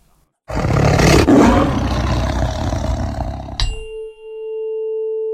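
A single loud, rumbling tiger roar lasting about three seconds, powerful, ending abruptly and followed by a steady tonal hum.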